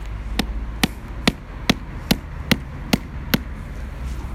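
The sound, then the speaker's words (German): Seven sharp hammer blows land at a steady, even rhythm, driving a white jump pole further into the ground, each strike a crisp knock over a low background rumble. “Ich habe hier nämlich noch so einen Hammer.”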